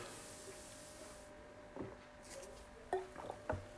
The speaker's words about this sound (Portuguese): Há uma empresa que está a ser incrível em relação a isto, e deixem-me só dar aqui um golinho de água.